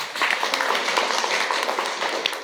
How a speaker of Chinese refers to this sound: 哇，非常棒，给自己掌声鼓励一下。